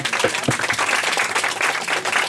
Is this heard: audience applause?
yes